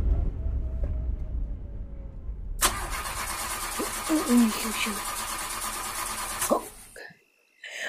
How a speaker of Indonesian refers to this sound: Mobilnya mogok di tengah sawah.